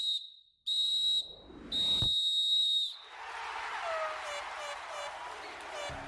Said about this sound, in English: There's the final whistle.